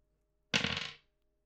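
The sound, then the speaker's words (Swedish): Dice clatter across a hard table in one quick, rattling roll, about half a second of bright tumbling clicks that fade out, with silence before and after. The dice are rolled to draw two starting Pokémon for a Pokémon Black or White 2 challenge. “Ta fram era tärningar, gott folk.”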